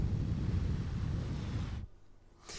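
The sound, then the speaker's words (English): A voice makes a steady hissing rush of white noise with the mouth, like TV static from a TV trying to find a frequency, for nearly two seconds, then cuts off abruptly, followed by a short quieter breathy burst. “Uh, but uh, you have to be generating it with your mouth. Whistling white noise.”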